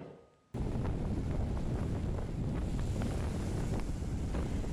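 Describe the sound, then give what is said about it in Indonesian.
Strong wind roars across the microphone in a steady, loud rush, with heavy waves over 2 meters high churning and crashing beneath it during bad weather at the Merak ferry port in Banten, Indonesia. It kicks in abruptly after a brief quiet moment and continues without pause. “Seperti inilah kondisi gelombang tinggi dan angin kencang yang terjadi di pelabuhan penyeberangan Merak Banten.”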